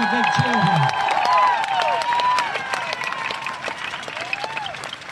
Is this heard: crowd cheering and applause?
yes